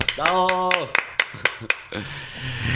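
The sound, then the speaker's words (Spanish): Brief applause: about eight sharp, crisp hand claps in an uneven rhythm, opening under a sustained vocal whoop. Breathy noise and a faint low voice linger after the clapping stops. “Aplauso, por favor.”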